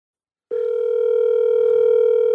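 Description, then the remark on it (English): A telephone ringing tone on the line while calling a son's new phone number: after a brief silence, a steady, loud electronic hum starts and holds unbroken to the end, with no voices. “He'll pick up.”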